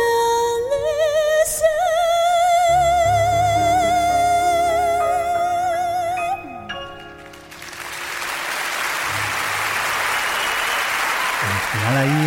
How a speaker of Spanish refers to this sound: Porque de hecho empiezan a aplaudir al principio y tal.